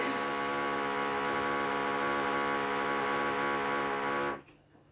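A power drill runs with a steady, loud, whining motor hum for about four seconds, then cuts off abruptly, leaving faint background noise.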